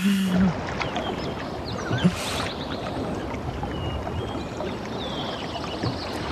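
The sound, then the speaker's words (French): A steady wash of sea water churns and hisses without pause, with a brief low thump near the start and no voices. “Avant, j'ai un bruit à vous faire écouter, le bruit de la mer.”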